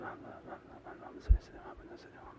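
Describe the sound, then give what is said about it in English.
A voice demonstrates breath zikr recitation, making rhythmic, breathy chanting sounds, audible in-and-out breaths with soft hissing bursts, and a brief low thump partway through. “It's all through his living heart, the heart's alive and it's going um, um, um, and through their breath they're breathing in that zikr and that power.”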